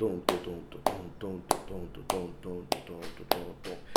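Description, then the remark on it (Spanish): Crisp finger snaps play a rhythmic cell with a jazz feel in a steady, swinging pulse, about seven in four seconds, bright over a continuous murmuring voice underneath. “Pero esa misma sensación en el jazz sería...”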